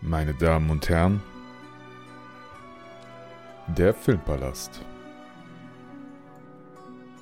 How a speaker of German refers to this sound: vielen Dank für diesen wundervollen Jingle.